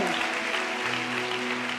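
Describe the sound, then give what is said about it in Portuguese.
An audience applauds the name of Jesus with steady, dense clapping that holds at an even level for about two seconds, while a sustained musical tone hums beneath it. “Glória a Deus, aplauda o nome de Jesus.”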